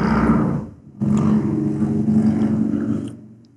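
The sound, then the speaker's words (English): A loud motorcycle engine drones steadily outside, dipping briefly before surging back with a harmonic roar, then fading toward the end as it passes by. “That was a motorcycle.”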